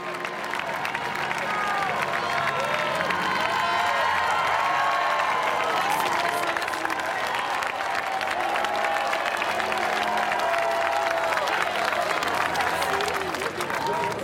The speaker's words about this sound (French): sortie, ovation pour les nouveaux prêtres fraîchement ordonnés. Et ce qui me surprend, c'est d'entendre ces merci qui fusent ça et là. En fait, les fidèles remercient ces jeunes hommes de leur consacrer leur vie.